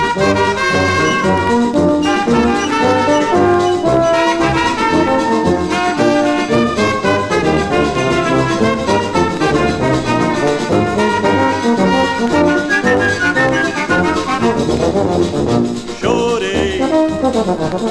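A lively samba plays loud and continuous, with a male singer's voice riding over a full band of rhythmic percussion, strummed strings and horns throughout.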